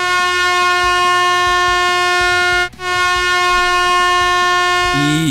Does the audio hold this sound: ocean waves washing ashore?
no